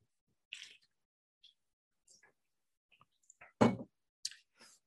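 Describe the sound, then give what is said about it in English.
Someone drinks water: scattered faint clicks and wet mouth sounds, then one louder gulping thump followed by a couple of softer sips, with no talking. “Give me a water break here.”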